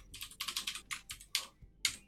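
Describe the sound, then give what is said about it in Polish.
Quick bursts of typing on a computer keyboard, fairly quiet, with clustered key clicks separated by brief pauses, entering a name and profession into table cells. No one speaks. “Teraz się wpisało imię, zawód.”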